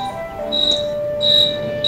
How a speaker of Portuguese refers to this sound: Olha quem apareceu hoje no Mensagens. Um grilo.